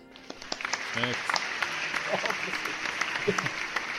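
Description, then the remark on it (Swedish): An applause sound effect, added to congratulate someone: steady applause from a group, a dense patter of many hands clapping at an even level for several seconds, with a few brief voice fragments briefly mixed in. “Lägg in en applåd här”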